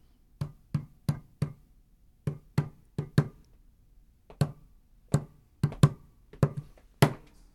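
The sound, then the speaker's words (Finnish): Knuckles tap out the rhythm of a familiar song the tapper plays in their head: about fifteen crisp, dry knocks on a hard surface in uneven groups with short pauses between phrases, fairly loud against silence, with no talking. “Ja niin se sitten meni, että nakuttajat keräsivät itsensä ja alkoivat päässään soittaa biisiä –”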